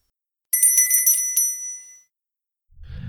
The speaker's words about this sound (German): Die Glocke, die man immer läuten soll, wenn es um limitierte Editionen geht.